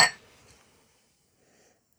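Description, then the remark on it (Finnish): A single bright clink of drinking glasses of Amppari lemonade touching in a toast, with a short ringing tone that fades within a fraction of a second, followed by faint quiet shuffling. “Kippis. Kippis.”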